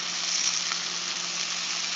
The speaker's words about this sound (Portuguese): É isso mesmo? Não, mano. Tô fritando um frango.